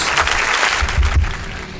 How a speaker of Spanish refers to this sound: Un aplauso. Eh, un aplauso. Aplauso Escucho los aplausos.